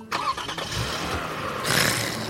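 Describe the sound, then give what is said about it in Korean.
The engine of an old 2005 small car cranks over with a few rough starter pulses, then catches and settles into a steady, fairly loud idle, with no voices. “봐봐, 소리 기가 막히지? 이건 뭐 거의 새 차지 새 차.”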